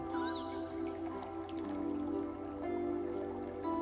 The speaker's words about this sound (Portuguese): Perceba a água correndo.